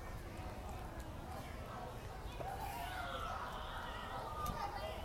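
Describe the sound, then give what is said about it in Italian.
Children's voices call and chatter, their high-pitched shouts rising and falling over a steady outdoor background hum. “Meravigliato come quando vedi questi bambini. Li sentite?”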